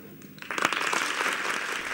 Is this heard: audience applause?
yes